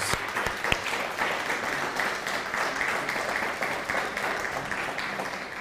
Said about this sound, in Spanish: Un fuerte aplauso a todos ellos.